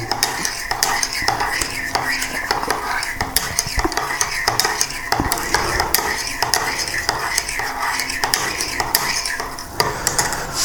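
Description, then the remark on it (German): A spoon stirs briskly in a cup of coffee, its light metallic clinks and scrapes repeating in a quick, fairly steady rhythm for about ten seconds, with no one speaking. “Aber jetzt trinke ich erstmal in Ruhe meinen Kaffee.”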